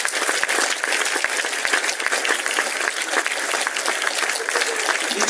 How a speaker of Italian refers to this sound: noi della comunità del santuario e io come rettore insieme a tutti i sacerdoti della nostra città e con la benedizione del nostro vescovo che ringraziamo ancora con un grande applauso della sua presenza.